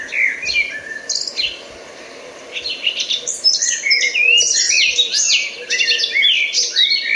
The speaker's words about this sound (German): So schön. Ja, es ist eben äh, eigentlich fast zwischen Amsel und Nachtigall. Genau. Bisschen, ne? Und es, ich weiß, warum es einen nervös macht. Ähm, ich lasse noch mal kurz singen, bevor ich weiterrede.